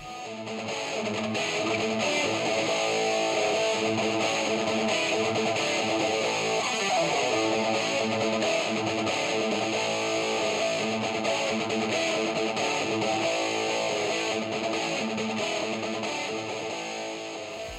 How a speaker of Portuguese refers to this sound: estava experimentando com seus pedaços de efeitos e, em um dado momento, criou um som que lembrava uma locomotiva.